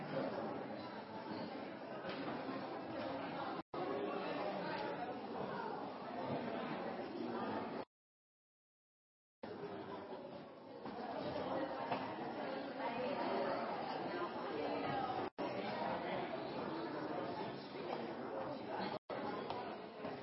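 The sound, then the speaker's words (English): A large group of people chatting and greeting their neighbors with the peace of the Lord, a steady overlapping murmur of many voices at once, broken by a short silent gap partway through. “Turn and greet your neighbor with the peace of the Lord.”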